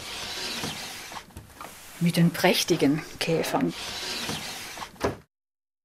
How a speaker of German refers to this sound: Und da sieht man jetzt, diese Schubladen. Es sind 100 Schubladen und alle nach Käfern, also nach Familienkäfern sortiert. Und ich öffne mal eine Schublade